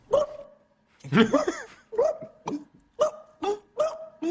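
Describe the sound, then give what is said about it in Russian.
A human voice mimics a sickly, hoarse dog barking, like a thirsty dog living in hard conditions: about six rough, strained barks in an uneven rhythm, fairly loud, with no other speech. “Надо такой звук, как лай больной собаки.”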